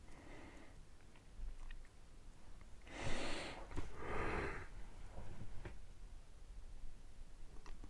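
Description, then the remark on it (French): A breathy yawn: a long airy inhale followed by a drawn-out exhale, heard alone against a quiet background with no talking. “Le fameux bâillements. je viens de bailler.”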